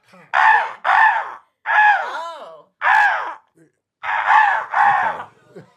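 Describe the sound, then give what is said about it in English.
A person imitates a crow's caw with harsh, nasal calls in short bursts: a pair, a single, another single, then a final pair, loud with brief pauses between. “Crows already know to hear. Yeah, they do. They're coming.”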